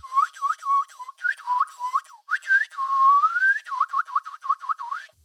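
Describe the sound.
Someone whistles a quick series of chirpy, rising and falling notes, mimicking a small bird's cheeping, with one longer upward-sliding whistle in the middle; no talking.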